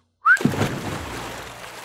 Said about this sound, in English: Trying to whistle out.